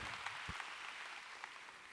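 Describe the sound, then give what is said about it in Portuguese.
An audience applauds the Lord together, a dense, steady wash of many hands clapping at once with a faint thump early on, fairly quiet and with no voices over it. “Pode dar mais um aplauso ao Senhor?”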